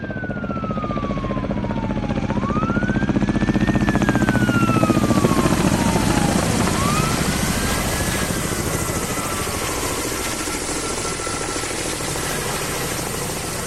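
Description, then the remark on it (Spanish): A Kamov Ka-32 helicopter with a coaxial main rotor roars, its rotors thudding in a rapid steady beat over loud engine noise, with whining tones sliding up and down throughout; no one speaks. “Este sonido inconfundible ha marcado la diferencia en los incendios forestales.”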